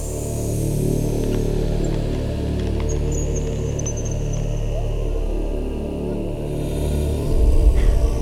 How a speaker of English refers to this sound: The idea of a coffee grinder is that uh, it gives kind of feeling that there is somebody behind all this, and this somebody is doing something, and it's trying to, I don't know, trying to